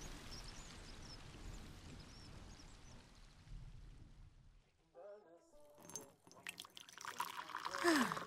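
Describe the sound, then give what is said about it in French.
After a stretch of steady background noise, tea is poured into a cup, a splashy trickle whose pitch rises as the cup fills, ending in a brief louder gurgle. “Tiens, un peu de thé pour toi, Barnabé.”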